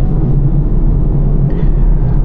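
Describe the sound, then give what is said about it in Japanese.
Steady low rumble of a car driving around Lake Toya (洞爺湖) while looking for a walking spot, engine drone and road noise continuous and fairly loud, with no other distinct sounds. “これ車に乗ってまあまああの車に乗ってるんで移動してるんですけれどもあのまあ、ちょっとね洞爺湖を歩いてみたいっていう衝動に駆られているっていうことなんですねそう歩いてみたいのになんで車やねんっていう”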